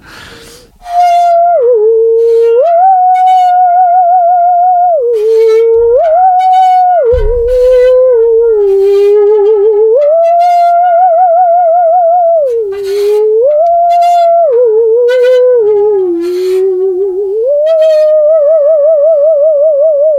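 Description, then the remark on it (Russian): A bent musical saw bowed with a rosined cello bow plays a slow, sustained Beethoven melody, its eerie, wavering tone gliding between pitches with a pronounced vibrato, loud and continuous with no talking. “У меня есть тут э, смычок от виолончели. Э, эту пилу можно гнуть и играть на ней э, какую-нибудь музыку.”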